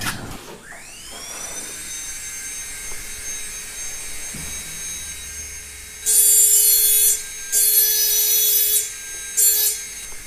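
A high-pitched rotary grinding tool whines steadily as a woman glass engraver engraves glass in a glass-cutting workshop, then cuts in with three loud, harsh bursts of abrasive grinding against the glass, with no one speaking.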